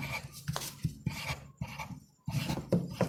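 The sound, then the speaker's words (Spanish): A pencil scratches across paper in quick repeated strokes, a dry rasping that loops steadily while drawing small circles, with a brief pause midway. “Ay, me da cosa el ruido que hace el lápiz.”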